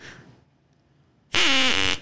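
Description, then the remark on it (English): A single loud, buzzy duck quack sound effect played at a sponsor break, lasting about half a second, harsh and nasal with a slight downward pitch bend, after a stretch of near silence. “Actually, that duck sound actually fits with with with with Streamyard because they their mascot is like is a plush duck, so it, it fits.”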